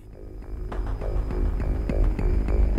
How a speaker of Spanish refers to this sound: Ambos aparecen desde el inicio de la película y uno particularmente tiene una evolución maravillosa. El primero es el tema de la red, que suena así.